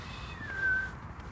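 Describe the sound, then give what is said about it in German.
A single thin, drawn-out meow from a female cat, fairly faint, rising slightly before trailing off, heard alone over a low background hum with no talking. “Katze gehört.”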